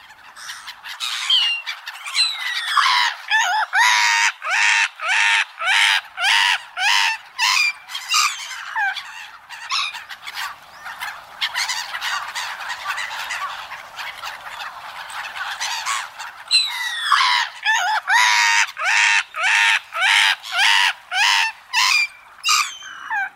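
A flock of black-headed gulls at Toneri Park in Tokyo, Japan, calls continuously, harsh raspy squawks overlapping in dense bursts, loud and busy at the start and end with a slightly thinner stretch in the middle; no talking.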